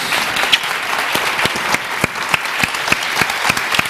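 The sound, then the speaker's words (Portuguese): A standing audience claps steadily, a dense wash of hand claps with sharper individual claps popping out at a fairly even rhythm, loud and sustained with no voices on top. “mas eu queria que todo mundo ficasse de pé para aplaudir”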